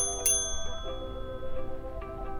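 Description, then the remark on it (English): A single bright ding from a front desk service bell in the lobby of the Sunset Rise Inn, its metallic ring sustaining and slowly fading over a low, steady background hum, with no one speaking. “No one was behind the desk, so I rang the bell.”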